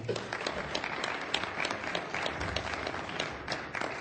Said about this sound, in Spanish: ¿Cuántos dan un aplauso a la palabra del Señor?